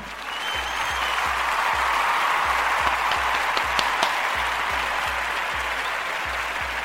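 A dense burst of recorded crowd applause, a sound effect fired from the mixing desk, fills the whole stretch, steady and loud, with many hands clapping at once and a few sharper claps popping out of the wash.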